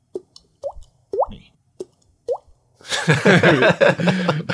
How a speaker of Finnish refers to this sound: Meillä vuotaa, vuotaa katto ja tippuu tonne, tonne, tota astiaan aina tippa.